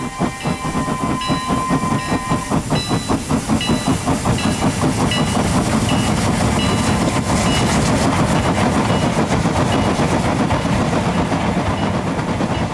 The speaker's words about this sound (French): Le train quitte la gare quand soudain, le son d'un harmonica déchire le ciel.